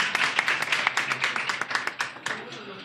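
audience clapping

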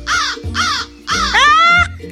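crow cawing

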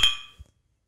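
glasses clinking

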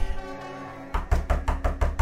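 knocking on a door

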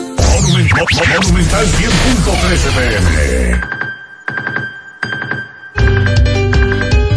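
phone alarm ringtone

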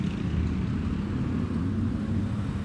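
street traffic

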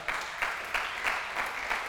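audience applauding

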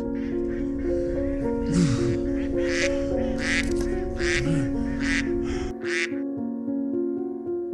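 ducks quacking

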